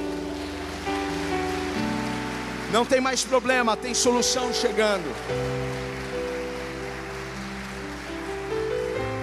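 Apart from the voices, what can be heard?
audience applauding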